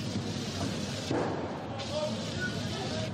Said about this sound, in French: 2h30 de tension place de la République, Marqués par des tirs de feu d'artifice côté manifestants.